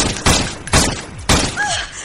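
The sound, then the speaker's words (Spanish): A quick burst of four loud gunshots, sharp booming cracks roughly half a second apart, each trailing off in a brief echo, with a faint whining tone afterward. “Nadie sobrevive a cuatro balazos.”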